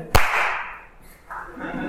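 One sharp, loud hand clap, made for sound sync, rings out near the start, trailing off in a lingering decay, followed by softer shuffling or murmuring noise.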